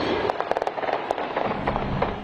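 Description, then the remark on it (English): Gunfire: a rapid, irregular burst of sharp cracks ringing out over a noisy, screaming crowd at a Chiefs celebration parade in Kansas City, the shots coming in quick succession as fans, including families, run for their lives. “gunfire, screams, as a horrifying reality set fans, including families, running for their lives.”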